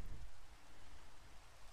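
Steady rain falls continuously, a dense, even hiss across the whole clip with a low rumbling undertone, fairly quiet and with no voices.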